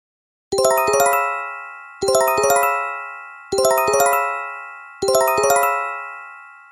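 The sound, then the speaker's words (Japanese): The Japanese earthquake early warning chime, as broadcast on TV and radio, repeats four times, each a bright cluster of rapid bell-like tones that rings out and decays before the next, loud and clear with no voices. “はいちょっとここでですね、あの、どんな音がするかっていうのをですね、聞いてみたいと思います。”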